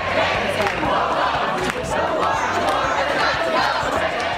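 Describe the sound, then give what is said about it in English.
A loud, agitated crowd shouts and yells continuously as the Las Vegas city council approves a measure making it illegal to camp or sleep on streets or sidewalks, many voices overlapping in a dense, unbroken roar with sharper cries rising above the din. “Uh, the city council approving the measure in front of a fired up crowd.”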